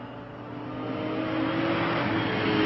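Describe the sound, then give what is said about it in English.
A red sports car driven by Adrian Conan Doyle revs and accelerates, its steady drone climbing in pitch and growing louder over a few seconds, with no voices. “Adrian Conan Doyle driving a red sports car.”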